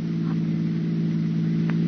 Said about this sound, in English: That sounds like cars. Probably police cars. We're just about to be sensationally rescued, just like fiction.